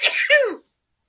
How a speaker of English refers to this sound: if she coughs and dies, I will try to edit this out.